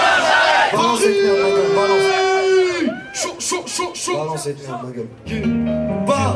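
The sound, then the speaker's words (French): A concert crowd in Paris shouts back and forth with an amplified voice in a call-and-response chant: the voice calls "Paris" and the crowd answers "demain j'arrête". Loud and echoing, with a long held shout early on and dense crowd noise throughout. “Vous êtes chaud quoi donc au moment où je vous dis Paris, vous allez me dire demain j'arrête.”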